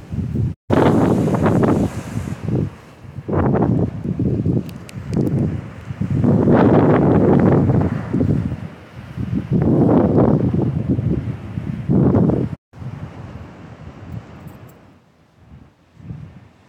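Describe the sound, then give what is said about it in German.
Strong wind buffets the microphone on a very windy day at a beach, while waves are being recorded on a walk, in loud, rumbling gusts that surge and fade repeatedly, then drop to a softer, quieter wind after a brief cut near the end. “Okay, ja, ich wollte jetzt eigentlich nur die Wellen aufnehmen, aber ja, heute ist ein sehr windiger Tag.”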